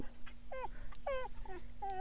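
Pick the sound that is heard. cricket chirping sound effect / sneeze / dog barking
dog barking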